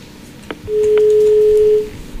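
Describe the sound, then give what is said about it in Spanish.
A steady, loud telephone line tone hums for about a second after a couple of faint clicks, then cuts off as a caller's phone call drops, leaving quiet background noise with no talking. “¿Se cortó la llamada?”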